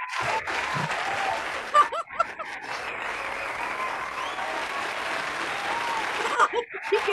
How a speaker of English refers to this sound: That's too long applause. the, the applause is almost as long as the introduction.